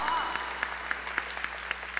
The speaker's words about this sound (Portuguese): É isso aí, palmas! Vamos, ó!